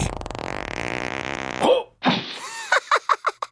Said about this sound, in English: he farted. That wasn't a fart. that was just air leaving my butt. Which is a fart.